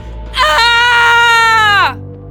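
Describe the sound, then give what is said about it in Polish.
A girl lets out one piercing, high scream, loud and close, held for about a second and a half before its pitch sags and it cuts off. No one speaks. “Najpierw ogłuszył ją przeraźliwy krzyk liny.”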